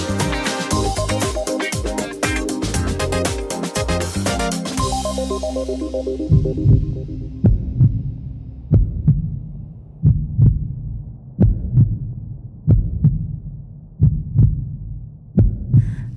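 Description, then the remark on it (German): A short burst of music fades out, leaving a loud human heartbeat: steady double thumps repeating roughly every second and a half against a low hum, with no voices. “Ein schönes Geräusch, oder? Was ich aber immer wieder gruselig finde, ist die Vorstellung, dass so ein Herz niemals eine Pause machen darf.”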